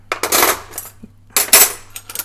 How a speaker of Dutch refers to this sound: Dat ik leg nu bestek terug in de la. Best wel hard. Eigenlijk moet ik het iets minder hard doen. Ik heb net mijn kleine eh, wakker gemaakt.